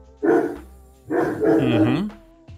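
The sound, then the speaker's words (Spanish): A pet dog barks twice: a short, sharp bark, then a longer, drawn-out bark that bends downward in pitch. No one is talking. “Aquí dicen, es, el Arcanine ladrando.”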